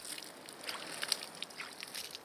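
Water splashes and sloshes in short, irregular bursts as a woman standing on a small field splashes water by hand onto her vegetable bed. The sound is fairly quiet, with a soft wet patter between the splashes and no voices.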